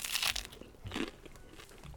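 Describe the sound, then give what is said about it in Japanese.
A bite into a crunchy toasted egg-style sandwich made with rice bread and a scrambled-egg-like filling with mayonnaise that is not actually egg, with loud crisp crackles at the start and another crunchy burst about a second later, followed by softer chewing. No one talks. “トーストですねどうでしょうか卵じゃないって言われなかったら、うんうん、分かんないあ卵だよねこれねうん、ねこれマヨネーズをね加えてます”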